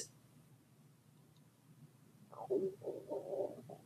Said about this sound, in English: Can you hear my stomach rumbling? I'm hungry.